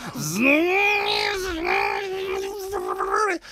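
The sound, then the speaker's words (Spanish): A voice imitates a running blender with a steady, sustained whirring hum that rises at the start, holds for about three seconds, then cuts off abruptly. “Y dice, a ver, a ver, e, e, enciende la batidora.”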